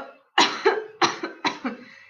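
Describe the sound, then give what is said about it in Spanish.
A dry, hacking cough comes in three quick bursts, each a harsh double hack, fairly loud with no talking around it. “Empezó a toser. Trató de nominarse, pero la tos empeoró hasta convertirse en un repiqueteo seco.”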